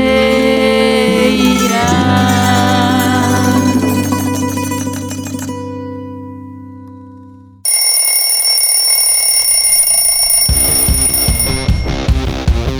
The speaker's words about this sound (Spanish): y el despertador ha sonado para que sigamos investigando